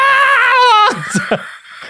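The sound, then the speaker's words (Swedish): A voice imitates the panicked scream of a mother riding a roller coaster with her child down the biggest drop: one loud, high, wavering 'aah' held for nearly a second, then trailing off into a few short breathy gasps. “Barnet har händerna uppe och skriker och lycka och mamman Aah!”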